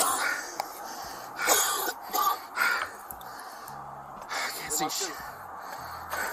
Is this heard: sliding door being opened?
no